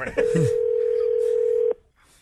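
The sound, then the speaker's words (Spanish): A telephone ringing tone on a call to someone's daughter: one steady, mid-pitched electronic beep holding for about a second and a half, then cutting off sharply. A voice briefly talks as the tone begins. “Estamos llamándole a una nena, no le escucha, digo, llámale a mi hija, por favor”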